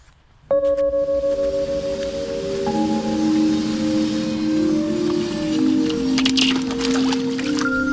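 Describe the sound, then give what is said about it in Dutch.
Foley made with a piece of cardboard to mimic a kitten's paws on ice: a steady ringing, tonal hum with a soft noisy wash, and a few scattered light taps and scrapes near the end. “Het is het geluid dat het geluid van een katje op ijs nabootst.”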